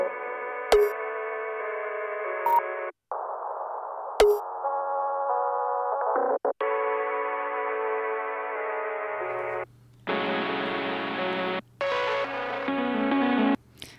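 An instrumental hip-hop beat of buzzy, heavily processed synth chords in abrupt blocks, with sharp clicks, sudden cutouts and a deep bass line entering partway through; no voices.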